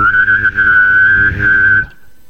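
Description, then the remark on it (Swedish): A person whistles a steady, slightly wavering tone while humming a low drone underneath at the same time, both held together for about two seconds before stopping abruptly. “Ja, jag kan faktiskt eh, vissla och eh, brumma med stämbanden samtidigt.”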